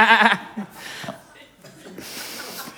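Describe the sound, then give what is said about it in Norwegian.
A voice imitates a goat's bleat with a short, nasal, wavering "maa" near the start, followed by breathy sounds and faint background noise. “Ja, og jeg gikk jo for flintis med skikkelig geiteskjegg. Sånn mæ.”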